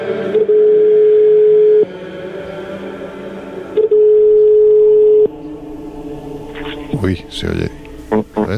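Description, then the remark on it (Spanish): Telephone line tones of a call being placed to a journalist: two long, steady mid-pitched beeps with a pause between them, like a call ringing through, followed by brief muffled voice sounds on the line. “Vamos a darle un toque a alguien que sabe mucho de esto, que es nuestro querido periodista, amigo”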